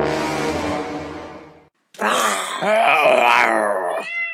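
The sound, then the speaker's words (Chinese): A loud, drawn-out lion roar that fades away, followed after a short pause by a wavering, higher-pitched yowling cry. No one speaks. “一看见房间里出现了一只狮子，猫就吓得窜上了屋顶。”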